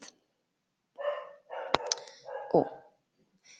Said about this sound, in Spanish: si escuchan a un perrito es porque hay un perrito aquí, se llama Coco. Y a veces, no sé, le ladra a los árboles y le ladra a la gente en la calle. le ladra a todo.